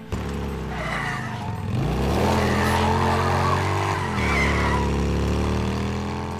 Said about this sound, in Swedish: Hur är motorljudet? För jag vill ju veta att när jag kör runt där på motorcykeln, ska det skorra gott i min Steam Deck högtalare